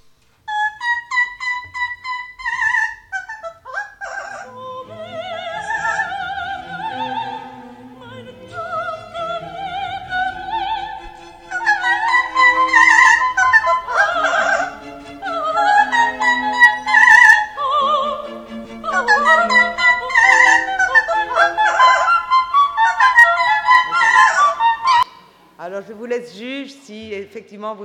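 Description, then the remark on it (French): A parrot imitating singing, with long runs of warbling, melodic phrases that slide up and down in pitch. The phrases are fairly loud and nearly continuous, with brief pauses and a short closing phrase. “Comment chante un perroquet Comment il imite”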